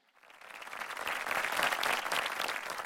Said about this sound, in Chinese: 非常感动人心，让我们掌声恭喜这位生命小勇士。